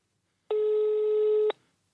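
A single steady telephone ringing tone sounds for about one second, a flat mid-pitched beep that starts and stops abruptly, followed by silence, as a call is being placed to a caller in Bavaria.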